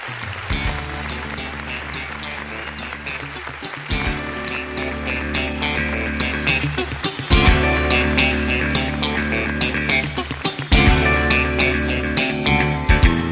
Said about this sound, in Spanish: le traigo una de sus canciones. Ella suena así.